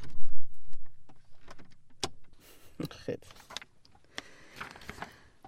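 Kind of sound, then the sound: household object, door being closed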